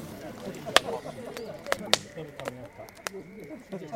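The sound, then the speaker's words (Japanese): A campfire crackles, with sharp irregular pops and snaps standing out over a low, steady rustle, several louder cracks spaced unevenly across the moment. “焚き火の音パチパチと分かりましたかいい音ですよね”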